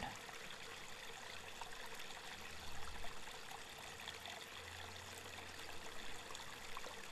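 A gentle stream trickles and babbles steadily throughout, a continuous wash of flowing water with soft low rumbles underneath, fairly quiet and even, with no voices.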